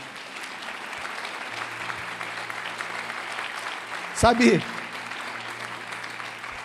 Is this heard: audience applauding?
yes